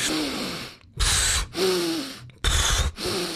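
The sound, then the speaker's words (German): Heavy, deep breaths, loud noisy inhales and exhales alternating in a steady rhythm, five in quick succession with no talking, done as a breathing exercise. “Hab, hab, fünfmal geatmet.”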